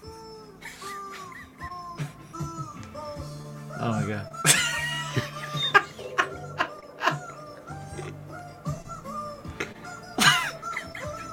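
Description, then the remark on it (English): A rubber chicken toy, squeezed and contorted by a performer to make it sing, squawks out a wobbly, melodic tune in a string of shrill, nasal notes with occasional raspy air bursts, while someone briefly exclaims over it. “Um, and he's actually able to like contort the chicken enough to make it um, sing. It sings stuff.”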